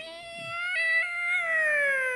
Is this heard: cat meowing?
yes